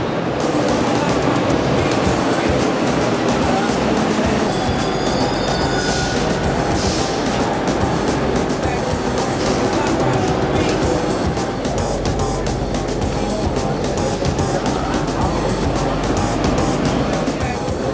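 A rubber-tyred subway train rolls into the station with a steady, loud rumble and a faint high whine early on, the noise filling the platform throughout, with a murmur of voices underneath.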